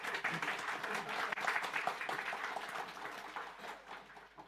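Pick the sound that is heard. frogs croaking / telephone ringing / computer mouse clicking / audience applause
audience applause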